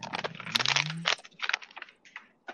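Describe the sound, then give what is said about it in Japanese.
Someone crunches potato chips and rustles a paper bag, a quick, irregular run of crisp crackling bursts that thins into scattered crunches, with no talking. “すごいなんか食べてる人いる。あごめんごめん。ポテチ食ってんの紙袋食べてたわ。”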